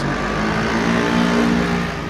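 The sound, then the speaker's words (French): Delivery scooters from a dark store in a city rev and pull away non-stop, a loud, steady droning whine that holds without a break, a continuous motor buzz with no voices over it. “C'est vraiment le bruit, comme je peux entendre, lancinant des, des, scooters qui débarrent là.”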